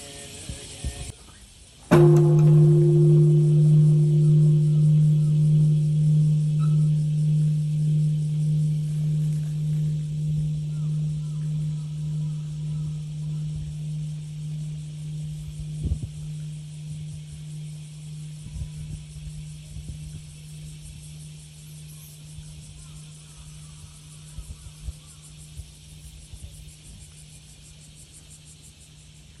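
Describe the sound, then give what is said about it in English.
A single deep, solemn toll of a peace bell dedicated to the victims of the atomic bombings rings out after a brief quiet moment, its low resonant hum pulsing slowly as it fades over the long silence that follows. “In the later part of our broadcast, we will share with you the solemn sound of the bell dedicated to the victims of atomic bombings as a tribute to their memory and world peace.”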